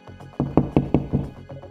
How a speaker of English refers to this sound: Whoever was at the door knocked again.